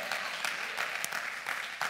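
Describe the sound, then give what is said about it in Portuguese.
An audience at a church sermon applauds to God steadily, a dense wash of many hands clapping with scattered sharper claps standing out, sustained at an even loudness throughout with no clear talk over it. “Pode aplaudir a Ele.”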